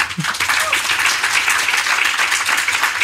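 Steady applause from a group for a guest at the end of a conversation, a dense wash of many hands clapping continuously at an even loudness for about three seconds, with no voices standing out.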